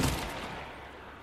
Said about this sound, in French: Mais là, regardez, il y a un mec qui arrive. Gun, bam, bam, bam.